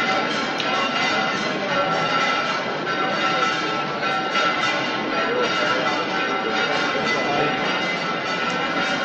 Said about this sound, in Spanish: Repican las campanas de la parroquia de la Magdalena cuando el público ya puede ver claramente esa cara, la de su Virgen, la de su madre, la de la Virgen del Mayor Dolor.